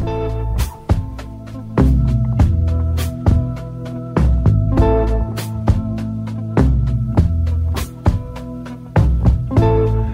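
A copla song plays loud, its full, warm instrumental sound punctuated by regular sharp accents about once a second, with no one talking over it.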